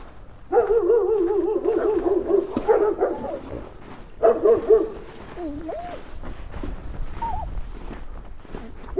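A dog barks in drawn-out, wavering bursts, one long stretch followed by a shorter one, then a few softer yelps fade out. No one speaks.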